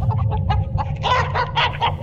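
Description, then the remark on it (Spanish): A rooster named Pacho clucks in a quick series of short, bright calls, growing louder midway, over a steady low rumble of background noise. “Mira, este es Pacho, el gallo mío.”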